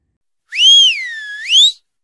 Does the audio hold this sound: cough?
no